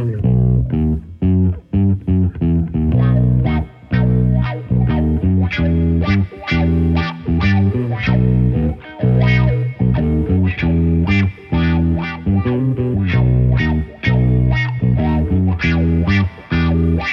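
A band's own song plays during an interview: loud rock with heavily distorted electric guitars chugging over a steady, driving drum beat, sharp cymbal hits punctuating the dense, continuous wall of sound.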